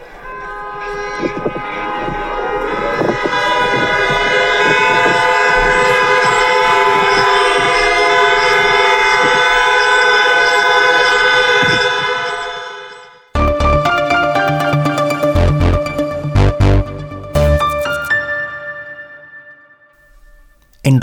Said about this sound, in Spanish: Mientras tanto, en los últimos días, con sonidos de alarma y tres minutos de silencio en todo el país, se rindió un amplio homenaje a las víctimas.